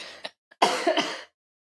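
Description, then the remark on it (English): A fairly loud cough in two quick raspy bursts, preceded by a couple of faint throat sounds, with no talking and silence after. “Wait, I need to cough.”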